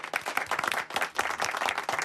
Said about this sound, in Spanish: Un aplauso para Sorolla. ¡Bravo!